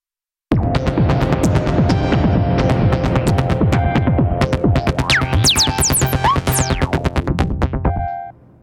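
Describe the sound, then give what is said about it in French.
A polyphonic analog synthesizer plays a dense, throbbing passage of sustained chords with pulsing rhythm and rising, swooping high tones, loud and steady for about eight seconds before cutting off abruptly. “En fait c'est la moitié d'un Prophet 8 ou, le, ou quatre fois le DSI Mofo, pour ceux qui, connaissent le DSI Mofo.”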